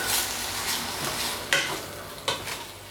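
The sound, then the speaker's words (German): Frozen meat sizzles steadily in a hot, thin, high-sided pan, a dense crackling hiss, while a utensil scrapes and stirs it, with a few sharper scraping strokes standing out near the end. No one speaks. “Ich möchte ja schon ein paar Röstaromen dran haben, auch wenn ich jetzt hier gefrorenes Alltagszeugs zubereite”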